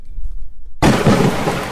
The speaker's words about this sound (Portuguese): Mas olha que feio o tempo, que temporal. Acho que vai faltar luz, hein?